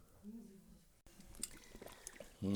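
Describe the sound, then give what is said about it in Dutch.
Water pours into a glass for a second or so, a bubbling, splashy gurgle, with a man's voice briefly before it and a voice starting again at the end. “We openen het vandaag met een glas water.”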